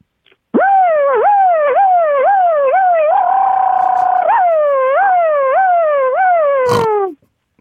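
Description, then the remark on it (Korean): A voice performs an impression of a tow truck siren as the truck heads out on a call, the last of a set of three siren impressions, with a loud, unbroken string of quick rising-and-falling yelps, holding one steady note midway, then sweeping again before stopping abruptly. “레카는 이제 레카 차에서는 출동할 때 여러 가지 소리가 많이 나더라고요.”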